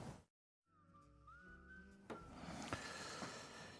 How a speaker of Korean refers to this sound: 뭐 아련한 휘파람 소리에서는 고독함이 느껴지기도 합니다.